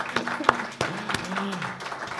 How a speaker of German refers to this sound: Ja, komm, gib mal einen Applaus.